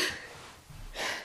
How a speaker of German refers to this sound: Gesundheit.